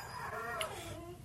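A dog whines in a high, wavering tone that slides up and down, fairly quiet, lasting about a second against a soft background hum.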